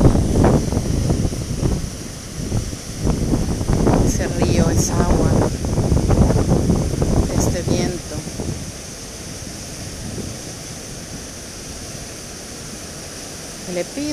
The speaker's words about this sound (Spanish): Me encuentro en un lugar maravilloso, donde hay una montaña, donde el viento sopla. Deseo y espero que lo puedas sentir, que lo escuches.